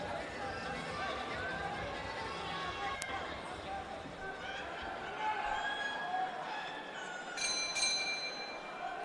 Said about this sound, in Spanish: Ahí sonó entonces la campana y este es el noveno episodio desde Metepec, Estado de México.